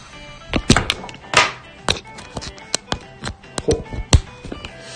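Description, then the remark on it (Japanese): A series of irregular knocks, taps and bumps, sharp and fairly loud, as a microphone whose battery ran out is handled and swapped for another, with no talking. “バッテリーがなくなったので、マイクを変えますね。”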